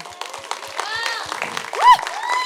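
A crowd breaks into steady, dense applause, many hands clapping at once, with whoops and cheering voices rising above it and a loud shout swelling near the end.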